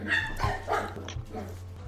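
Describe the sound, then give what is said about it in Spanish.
A dog barks and yips several times in quick bursts in the background, with a steady low hum running underneath. “Quiero contarles que mi, gato le lastimó la colita a mi perro. Ah, qué culera ¿Lo escuchas de fondo?”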